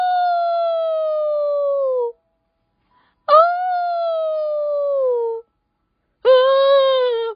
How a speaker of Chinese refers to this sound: 天色越来越晚了，worse of all，更糟糕的是，他们听到狼传来的叫声，哦！